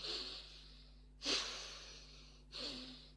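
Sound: imitated heavy breathing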